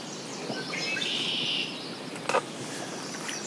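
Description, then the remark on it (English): A red-winged blackbird in the grass along a riverbank gives a buzzy, high trilling call lasting about a second, close, over soft outdoor ambience on a sunny day, followed by a brief sharp rattle of sound. “As the sun climbs, red winged blackbirds move in the grass so close they can perch on the edge of our paddles.”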